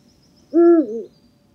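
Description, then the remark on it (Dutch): A single deep, resonant Eurasian eagle-owl hoot, a two-part call lasting about half a second, clear against a quiet background with faint high insect-like ticking; recorded by Jacques Timmermans. “gaan we nu nog even één keer luisteren naar het mooie geluid van de oehoe.”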